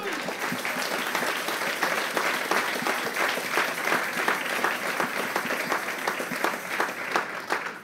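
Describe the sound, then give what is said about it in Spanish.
An audience breaks into sustained applause for the Lamb during a Bible reading, dense overlapping claps forming a steady, fairly loud wash for the whole stretch, with no talking over it. “Denle un aplauso al Cordero.”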